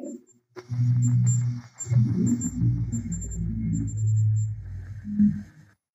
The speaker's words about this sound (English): Now you can hear the REM pod going off. We had it in the corner right next to where the handprint was, and it was going off.